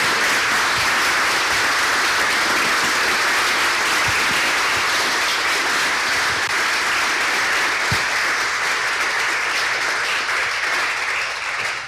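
Sustained audience applause fills the room, a dense wash of many hands clapping steadily and loudly for about twelve seconds, with no voices standing out.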